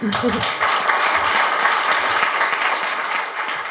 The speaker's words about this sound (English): I guess y'all know we didn't pay to be here, so um, yeah, huge round of applause for them.